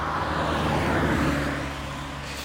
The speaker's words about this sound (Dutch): Oh, ik moet een weg oversteken met de auto's.